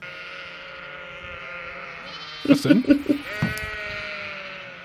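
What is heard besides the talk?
sheep bleating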